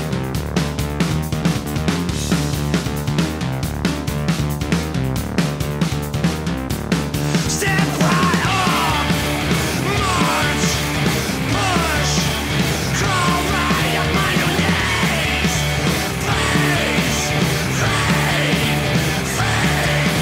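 Loud, dense rock band music, a cover song, with a bright synth line over pounding drums; after a few seconds it thickens into a wall of sound with harsh yelled vocals.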